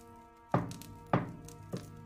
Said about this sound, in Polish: Słyszycie uderzenia lagi e, Donara, który jakby daje sygnał, że żeby powoli wszyscy się już zbierali.